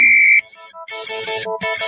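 A telephone busy signal as a caller tries to get through to a radio show line: a loud, steady high electronic beep, then a run of buzzy harmonic tones that shift in pitch and cut in and out, with no voices.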